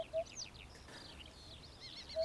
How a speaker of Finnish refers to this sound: Harjalinnun soidin puputusta voi kuulla Suomessakin, mutta pesimähavaintoja ei ihan viime vuosikymmeniltä taida olla.